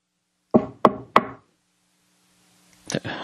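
Three sharp knocks rap on an apartment door in quick, even succession, fairly loud, reenacting a knock by the Lexington Police Department, followed by a brief pause and then a softer shuffle of movement.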